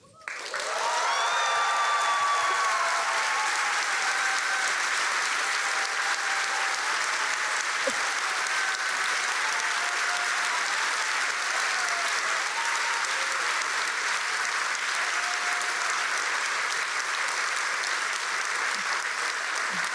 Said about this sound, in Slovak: Ja myslím, že ešte nikdy ľudia netleskali takto žiadnemu súdnemu rozhodnutiu. Aspoň si to nepamätám.